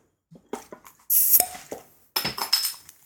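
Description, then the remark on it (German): A bottle of Berliner Weisse raspberry beer being opened: a few light glassy clinks and rattles, then a sharp hissing burst as the cap releases, followed by more clinking and a second brief fizzy rush. No one speaks. “Dann müssen wir doch erstmal die Flasche aufmachen.”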